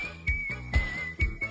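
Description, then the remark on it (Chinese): A long, drawn-out wolf whistle, blown loudly by a person in a washroom, holds one steady high note for the whole stretch, with three heavy low thumps pulsing beneath it at an even beat. “我憋不住想使个坏，突然又大声的吹了几句， 最后还故意拖了一个拖长音的流氓哨。”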